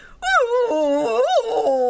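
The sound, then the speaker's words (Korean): A person vocally imitates a crying sound heard in the middle of the night, taken for a fox's cry: a long, wavering howl, one sustained cry rising and falling in pitch for about two seconds, fairly loud with no other sounds. “하고 우는 소리 안 들리냐? 에? 그거 여우 소리 아니었어?”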